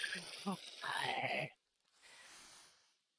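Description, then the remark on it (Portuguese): A voice imitates a creature's growl: a rough, gravelly vocal rumble lasting over a second, a brief pause, then a softer breathy hiss trailing off. “E tu começa a ouvir aquele grunhido assim, tipo”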